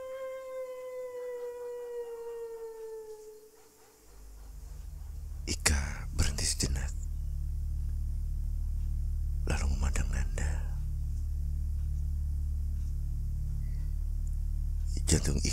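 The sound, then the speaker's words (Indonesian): Someone crying inside a room: a long, mournful wail slowly slides downward for the first few seconds, then gives way to a deep, steady rumble broken by several breathy, whispery bursts. “Ada yang menangis di dalam.”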